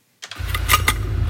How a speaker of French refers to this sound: Tournevis ou perceuse à la main,